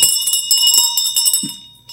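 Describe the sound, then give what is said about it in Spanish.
A hand bell is shaken, giving a bright, continuous jangling ring with rapid pulsing strokes for about two seconds, loud and with no voices over it. “Le toco la campana.”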